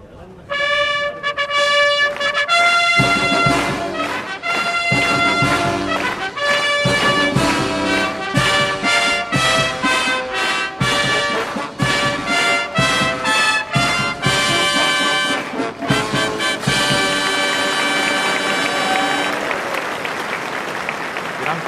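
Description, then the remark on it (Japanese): A live brass fanfare for the 66th Arima Kinen, a Grade 1 horse race at Nakayama Racecourse, plays loud, bright chords in punchy rhythmic bursts and held notes, ending on a long sustained chord as a large crowd breaks into warm applause under a clear winter sky. “有馬記念生演奏のファンファーレ競馬場に詰めかけた方の歓声ではありません温かな拍手が冬晴れの中山の空に吸い込まれていきました”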